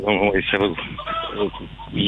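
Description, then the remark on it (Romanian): Hens clucking in a busy, overlapping chorus of short, throaty calls in spring, fairly loud and continuous throughout. “Au început să o găinile, a venit primăvara.”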